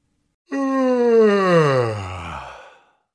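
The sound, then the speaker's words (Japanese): A heavy iron door, just wide enough for one person, creaks open in one long, loud groan as a woman pulls its handle, its pitch sliding steadily lower over about two seconds before fading out, with nothing else audible. “彼女は取っ手を引くと、大男のあくびのような音を立てて、鉄の扉が開きました。”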